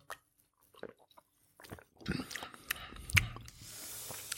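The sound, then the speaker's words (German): Sips and swallowing of cola from a 568-millilitre can, with soft mouth sounds, a sharp metallic click, then a steady fizzing hiss of carbonation toward the end. “Wir, wir trinken erst mal.”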